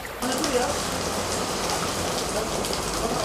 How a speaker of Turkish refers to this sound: Fırtına ile birlikte kuvvetli yağış İstanbul'da etkisini artırdı. Silivri'nin sahildeki mahalleleri suya gömüldü.